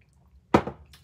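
A single quick, wet slurp as someone sips coffee, followed by a faint airy exhale in otherwise quiet surroundings.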